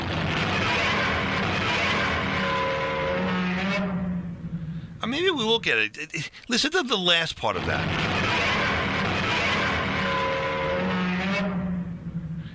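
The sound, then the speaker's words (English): A giant movie monster roar sound effect, a loud, screeching shriek with sharply rising and falling pitch lasting about two seconds, set between stretches of people talking. “i'm gonna play this because it's an oldie and an oldie but goodie godzilla's roar”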